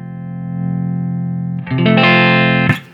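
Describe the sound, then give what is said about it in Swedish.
Distorted electric guitar played through an overdriven Fender amplifier, loud, a sustained overdriven chord ringing for over a second before a burst of crunchy, rapidly picked notes and a sharp final strum. “Men alltså typ eh, tre på en vanlig Fender.”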